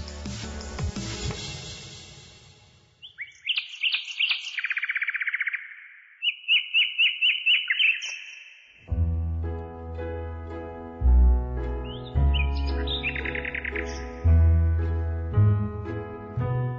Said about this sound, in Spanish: Cuando escucho el canto de un pájaro, algo en mí resuena con él y me lleva a un lugar de absoluta paz.